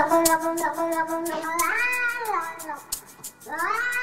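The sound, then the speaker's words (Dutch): A cat meows repeatedly in loud, drawn-out, wavering cries, several long yowls rising and falling in pitch, as the opening sound of a music track, with no one talking. “je hoort in het allereerste seconde hoor je een kat”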